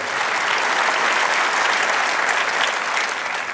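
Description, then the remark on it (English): A crowd applauds steadily at Fairhaven on Easter morning, wishing Happy Easter to people joining from other locations, a dense wash of clapping that stays loud and even throughout, with no voices standing out above it. “It's just by applause.”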